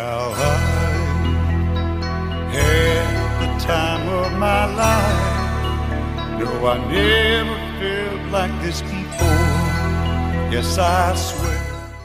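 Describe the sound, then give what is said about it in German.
A loud pop song from the soundtrack of the 1987 film Dirty Dancing plays throughout, with a wavering sung vocal line over sustained bass notes and bright layered accompaniment, the chords shifting every couple of seconds. “Es gibt ja einige Hits aus dem Dirty Dancing Soundtrack.”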